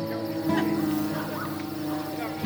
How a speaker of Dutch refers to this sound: Horen jullie dat ook? Ja. Pas op, een wesp!